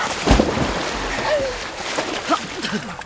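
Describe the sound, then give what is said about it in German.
A sudden heavy splash as a woman is pushed from a rowboat and plunges into water, followed by sloshing and churning water with brief muffled vocal sounds, fairly loud. “Du hast mich absichtlich ins Wasser gestoßen, aber das wird dir nicht so zählen.”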